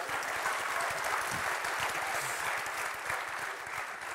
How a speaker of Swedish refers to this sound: Kan säga vad som helst, de bara applåderar.